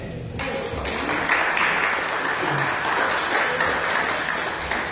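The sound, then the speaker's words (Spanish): Scattered, fairly subdued applause from a church audience at a service, a steady wash of overlapping claps lasting several seconds without any talking over it. “Este aplauso se, escuchó un poquito flojo.”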